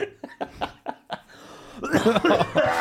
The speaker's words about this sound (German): Liebe nichts mehr als Lachen, das in Husten übergeht. ja. Das ist das Schönste.